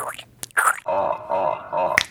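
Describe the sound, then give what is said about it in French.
Two crisp finger snaps, one near the start and one near the end, with a wavering, musical whoosh-like tone filling the gap between them. No one speaks. “En un claquement de doigts, nous nous sommes retrouvés en Amérique.”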